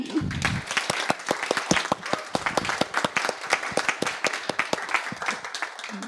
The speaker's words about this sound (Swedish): Så en riktigt stor applåd till till allihopa tycker jag.